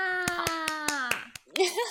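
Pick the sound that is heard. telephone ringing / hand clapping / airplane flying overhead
hand clapping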